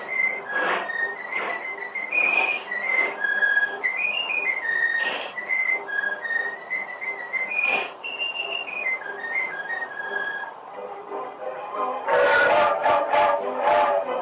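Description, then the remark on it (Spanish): A cartoon character in an early animated cartoon from 1928 whistles a bouncy tune, with clear shifting pitches and short rhythmic phrases, followed near the end by a few loud, bright bursts of sound. “Miren esto que acabamos de escuchar, los silbidos.”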